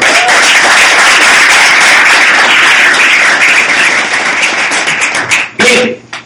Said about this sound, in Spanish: Aplauso para eso, por favor.